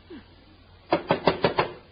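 knocking on a door

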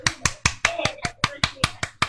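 hand clapping

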